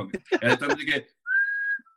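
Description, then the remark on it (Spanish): Someone whistles a single clear, steady note held for about half a second at a concert where the singer got everyone to whistle, right after a moment of voices talking, loud. “… puso a todo el mundo a silbar.”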